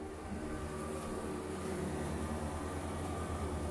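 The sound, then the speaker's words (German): A huge lawn mower's engine drones loudly and steadily, a constant rumbling roar with a low throbbing hum that never lets up, with no voices over it. “Du bist ein riesiger Rasenmäher.”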